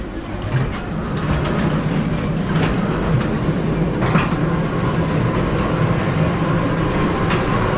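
A ghost train ride rolls along its rails with a steady, loud rumble, broken by occasional clicks and clacks of the wheels over track joints. No one speaks.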